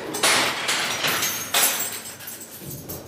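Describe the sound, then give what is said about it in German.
Heavy metallic clanks and rattles from a prison door lock being worked in Germany, a few sharp bright impacts ringing out with a grinding, scraping tail between them. No voices. “So verschieden der Klang der Schließanlagen ist, eines ist überall in Deutschland gleich.”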